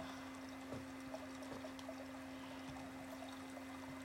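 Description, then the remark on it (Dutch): Cool, fresh, drinkable water pours and trickles softly and steadily, with a few small splashy drips, over a faint low hum, on a warm day. No one speaks. “Je maakt twee kommetjes van je handen en je brengt je handen naar je mond en je proeft het koele, frisse water.”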